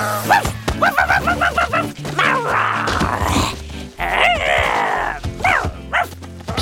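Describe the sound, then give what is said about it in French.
A dog barks in a quick series of sharp yaps as it pounces on Flouk, then breaks into excited barking and rough growling sounds, loud, over a steady low background hum. “chien se jeta sur Flouk et n'en fit qu'une bouchée.”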